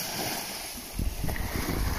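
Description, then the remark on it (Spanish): Steady ocean surf with a broad, rushing wash, swelling louder partway through as the water churns, with a breezy hiss over the top. “Respira, quédate unos minutos más en esta frecuencia, sintiendo el sonido del mar.”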